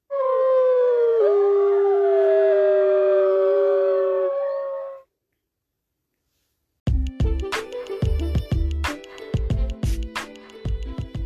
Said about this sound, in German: Das ist ein Wolf.